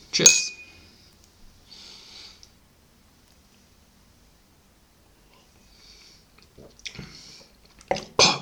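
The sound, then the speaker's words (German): A single bright clink of glasses in a toast rings out briefly, followed by quiet moments and then soft, wet sipping and mouth sounds near the end. “Das wird sich gleich so schön anhören.”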